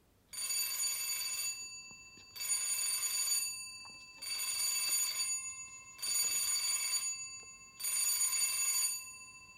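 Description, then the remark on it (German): A doorbell rings five times in a steady rhythm, each ring a bright, buzzing burst of about a second with short pauses between. The rings are clear, with no one talking. “Und dann läutet es fünfmal.”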